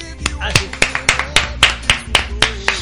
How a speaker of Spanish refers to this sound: Si quieres. Por favor, un aplauso para mí.